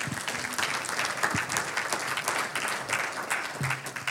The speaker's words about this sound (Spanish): Un aplauso a Lisandro, vea, ese sí.